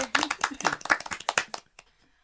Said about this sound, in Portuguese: Uma salva de palmas.